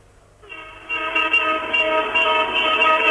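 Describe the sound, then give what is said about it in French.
Car horns blare during a street demonstration on Rue Michelet in central Algiers, where cars drive very slowly, in one long, loud, unbroken sustained blast that starts after a brief quiet moment and holds steady to the end, with faint street noise underneath and no voices. “Nous circulons maintenant dans la rue Michelet, la rue Michelet où les voitures roulent très lentement et vous pouvez entendre que la manifestation bat son plein.”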